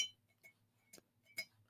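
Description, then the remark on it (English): A drinking glass is handled and clinks several times in quick, irregular taps, bright ringing tones that fade fast, with no talking. “I keep fondling this glass, and you I really do.”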